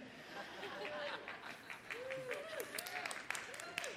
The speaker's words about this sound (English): That's the runners among us who are clapping.